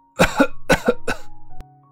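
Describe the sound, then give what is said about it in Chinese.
An elderly man, angry after speaking at length, coughs violently in a rapid series of harsh, raspy bursts, about three heavy coughs followed by quicker rattling ones, loud and alone with no talking. “老太公气得说了一长串，然后剧烈咳嗽起来。”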